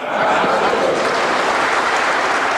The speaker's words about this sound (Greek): Το άξιος για πρώτη φορά ακούγεται στη Βουλή και είναι ενδεικτικό για τον κύριο Στεφανόπουλο